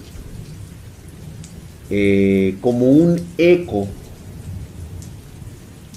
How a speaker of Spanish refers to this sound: ¿Está lloviendo o es un efecto? Está lloviendo como siempre. Aquí siempre llueve.